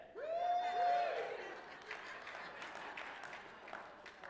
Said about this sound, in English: I, I don't think I quite, I don't think I said that right. And I, I don't think you were cheering for the right thing.